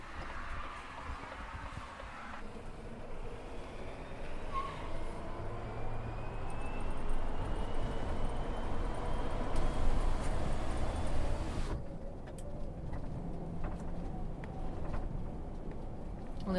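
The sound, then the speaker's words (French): A steady, broad rumbling whoosh of air friction and road noise fills the cab of a quiet electric truck, swelling gradually as the truck accelerates with the driver using only the accelerator pedal. “phase d'accélération là et toujours un silence. Euh, on a le frottement de l'air en fait hein, qui est avec nous, mais et là tu ne te sers que de la pédale d'accélérateur.”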